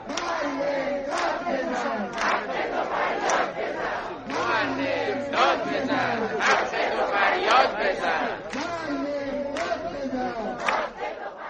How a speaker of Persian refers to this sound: و شعار معلمان در تبریز معلم داد بزن حق تو فریاد بزن